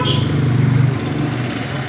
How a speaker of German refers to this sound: An der Hauptkreuzung von Odergadam braust der Verkehr wie nie zuvor. Ein LKW, Bus und Motorrad nach dem anderen schiebt sich über die holperigen Straßen, dann und wann auch ein Privatauto.